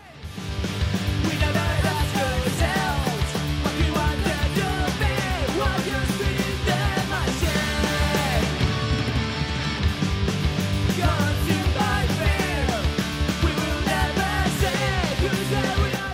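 Loud, driving punk rock music by a local band plays continuously for the whole stretch, with dense distorted guitars, pounding drums and shouted vocals up front, steady in volume from start to finish.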